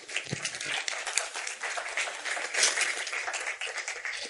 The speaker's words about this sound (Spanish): Un aplauso para ella. Venga.